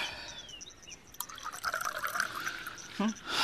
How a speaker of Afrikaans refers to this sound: Ja, nog so een. Ja, ek skink vir jou.